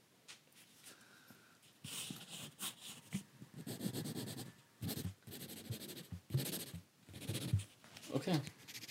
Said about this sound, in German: Boah, das hat ekelhaft gekratzt gerade dein Stift. Boah. Findest du es eklig? Finde ich sau eklig.